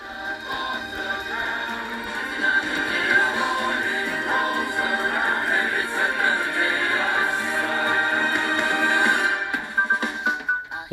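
An upbeat musical film song plays continuously, with bright sustained tones and dense layered harmonies at a steady loud level, fading slightly in the final second; no talking is heard.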